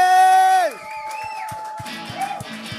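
A loud, sustained whoop slides downward in pitch, followed by a handful of scattered, sparse claps and faint cheering from the four staff members present, welcoming guests at the start of a live-streamed program, rather than a full crowd's applause.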